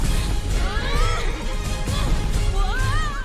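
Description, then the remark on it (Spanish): A horse in a stable whinnies twice, with quavering high-pitched calls rising and falling over a busy, rumbling background noise. “Este caballo tiene un espíritu indomable.”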